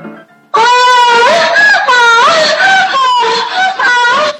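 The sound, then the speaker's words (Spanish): A woman screams loudly and continuously for about four seconds in high, strained wailing bursts that rise and fall in pitch, with brief breaks between cries after a short quiet lead-in. “Va el audio de la gritona, así que tengan el cuidado respectivo.”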